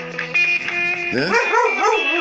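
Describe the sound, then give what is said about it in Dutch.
A dog sings along in a wavering, sing-song yowl, its pitch rising and falling over a steady held tone, fairly loud for a couple of seconds. “Ja, en ook nog de hond, die gaat ook nog mee zingen.”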